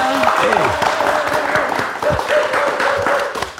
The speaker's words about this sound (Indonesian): Beri tepuk tangan dulu untuk kita semua.